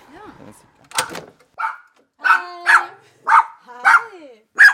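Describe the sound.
A dog, Selda, barks at the door of a large white house in a quick series of seven or eight loud, sharp barks with short gaps between them, and human voices mix in among the barks.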